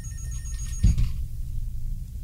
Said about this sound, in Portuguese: No dia seguinte, às 10 horas da manhã, o telefone do meu escritório tocou.